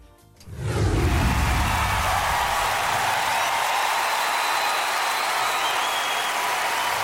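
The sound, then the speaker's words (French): A crowd bursts into sustained applause after a brief quiet start, the clapping swelling within a second into a dense, steady wash of hands that holds evenly loud to the end. “Je voulais t'offrir ces applaudissements parce que ça fait très longtemps.”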